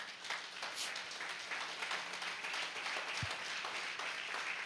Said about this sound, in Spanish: ¿Cuántos días dan gloria a Dios? Denle un aplauso a Dios.